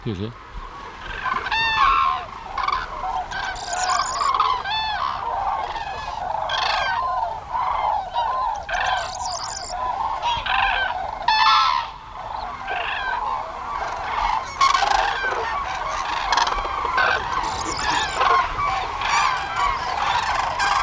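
A dense, continuous chorus of hundreds of cranes calling overhead in autumn as the flock arrives en masse, loud bugling cries overlapping without pause, rising and falling as the flock approaches and passes over.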